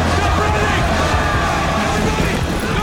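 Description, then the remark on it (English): A dense crowd roars with overlapping shouts and yelling, a loud, continuous hubbub of many voices filling the whole stretch with no pauses. “A guy somewhere in the crowd shouts.”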